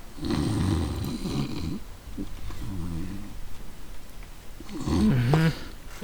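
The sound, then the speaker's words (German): A person mimics snoring with their voice, producing a few drawn-out, rattling snore sounds in succession, fairly loud, ending with a louder, more strained snort. “Dann fallen seine Augen so langsam zu und auf einmal hört ihr so ein.”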